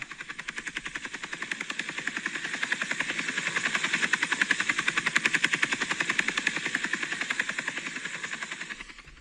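A helicopter approaching from the distance, its rapid, steady rotor chop swelling louder over several seconds with a broad whooshing roar, then easing slightly at the end. No voices.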